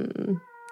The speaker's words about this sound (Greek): Να έφερε μια κάλτσα. Αυτό που ακούτε είναι το γατί λοιπόν, όπως σήμερα πληροφορήθηκα, μπράβο Μαρμελάδα που φέρεις την κάλτσα